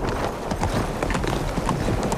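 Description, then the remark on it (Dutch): Hooves clip-clop in a steady, lively rhythm as a horse-drawn carriage carrying a small English party approaches Geneva, the sharp hoof strikes riding over a continuous rumble of wheels, fairly loud throughout. “Een rijtuig nadert Genève.”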